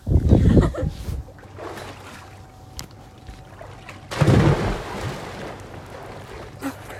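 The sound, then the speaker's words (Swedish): A person jumps into water with a loud splash, preceded by an earlier splashy burst, while wind and lapping water hiss steadily in the outdoor background. “Och jag tar också ett plums då.”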